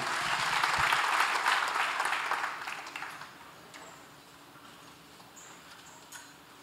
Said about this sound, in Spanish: Denle una ofrenda de palmas al Señor, tome su lugar.